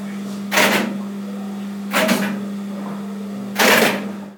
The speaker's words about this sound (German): Das sind die Relais. Also du sagtest ja, du warst im Relaisraum, wo der Fahrdienstleiter eigentlich nicht hinkommt.